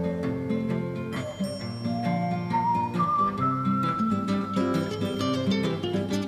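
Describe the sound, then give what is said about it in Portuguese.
A sustained, melodic whistle by the singer glides over a full band with bass, acoustic guitars and steady percussive ticks, the whistled line imitating the smooth sweep of string instruments, in a classic song recording. No one speaks. “É, ele faz aqueles assobios que ele, que ele faz como se fossem umas cordas.”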